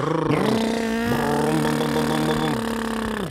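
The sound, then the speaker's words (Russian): A car engine revs hard through a loud sports exhaust, its harsh roar rising and sweeping in pitch over a few seconds before cutting off. No one speaks. “Допустимо ли ставить спортивный глушитель на гражданскую машину?”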